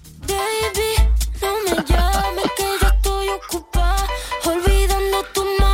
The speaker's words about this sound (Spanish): Pues es nuestra, es nuestra canción. Yo creo que, cada equipo tiene una canción y, nosotros cada vez que ganamos suena el vestuario y ya y ya suena muchas veces